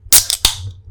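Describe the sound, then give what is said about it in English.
A can of Dr Pepper cracks open: a sharp metallic pop followed by a second snap and a short fizzing hiss that quickly fades. No one speaks. “I'll mm, crack open a can to that.”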